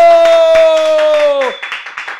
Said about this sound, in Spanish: Vamos a despedirlo con un fuerte aplauso.